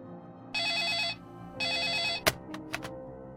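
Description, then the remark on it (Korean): A telephone rings with a call from a hospital, twice in long electronic trilling bursts, each about half a second, followed by a sharp click and a few brief clacks, like a handset being picked up. “그리고 며칠 뒤 병원에서 연락이 왔다.”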